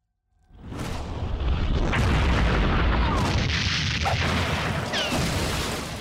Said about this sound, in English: Kaboom. Nice.